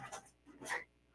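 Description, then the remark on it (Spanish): A small female pet dog lets out two short, fairly quiet vocal bursts: a brief whimpering yelp, then a higher, sharper bark-like yip, with no talking. “Una disculpa por el ruido, es mi perrita.”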